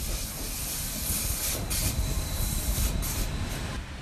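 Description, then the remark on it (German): A red train rumbles steadily as it reaches its terminal station in Tirano, Italy, with low-frequency rolling noise and a bright hissing layer on top. No one speaks. “Schließlich erreicht der rote Zug mit dem italienischen Tirano seine Endstation.”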